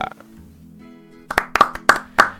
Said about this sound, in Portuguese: Eita, como demorou as palmas a entrar, hein? Tem que pegar o time melhor disso aqui.